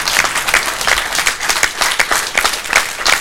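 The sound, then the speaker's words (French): Sustained audience applause, a dense steady wash of many hands clapping at a fairly loud, even level throughout, with no voices standing out. “Ah que tout le monde vous voit, que tout le monde vous applaudisse.”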